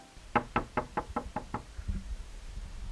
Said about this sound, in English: He puts the key into the lock, unlocks it, and then knocks.